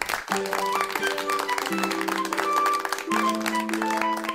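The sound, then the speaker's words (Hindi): A crowd claps steadily throughout, the dense patter of many hands mixed with sustained instrumental music playing held tones underneath. “वाह वाह महफिल लूट ली भाई एक मिनट तालियां हो जाएं।”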